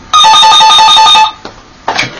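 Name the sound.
telephone ringing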